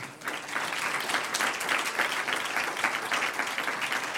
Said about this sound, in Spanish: Y por último, los familiares, un aplauso al que vive.